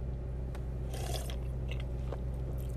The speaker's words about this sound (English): Oh, I'm sorry for the slurping, but man.